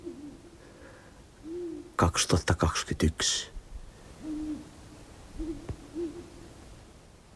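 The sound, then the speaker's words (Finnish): Low, mellow hoots of two owls sound in several separate bouts, answering one another outdoors close by on the shore of Lake Moijärvi on 16 April, recorded on a mobile phone, with a brief spoken interruption partway through. “Pöllöt huutelee.”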